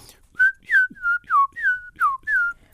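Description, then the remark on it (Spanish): A person whistles an imitation of a small bird's song, a quick phrase of about seven short notes, each sliding downward, in a steady lilting rhythm, clear with no talking. “y el pajarito fisura, así me sale, hace como.”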